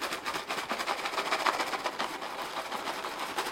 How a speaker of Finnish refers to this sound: Se ei ole mitään kalanruokaa, vaan se on hyönteisruokaa, joka on tarkoitettu ihmisille. Mulla on täällä paketti hyönteisruokaa, se kuulostaa tämmöiseltä.